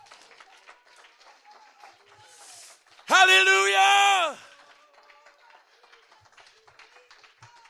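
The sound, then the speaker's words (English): Steady crowd hand clapping during a worship service continues throughout, with a loud sustained shout from a voice rising over the clapping midway through. “If you believe it, clap your hands and give God praise.”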